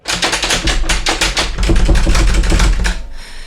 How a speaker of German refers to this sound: Hey, hey, wer schließt denn da ab?